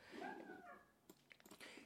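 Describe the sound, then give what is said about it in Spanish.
Dogs fighting outside a window: a drawn-out, high whining yelp gives way to a quick run of sharp barks and snarls, muffled. “Pero que obviamente, hay unos perros peleándose afuera de mi, ventana.”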